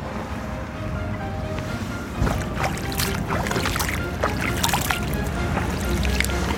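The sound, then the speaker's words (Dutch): A small stream, the Jansbeek in Arnhem, babbles gently and steadily, with continuous trickling and bright little splashes popping up throughout, moderately loud, with no voices. “Zullen we afsluiten met het geluid van het beekje?”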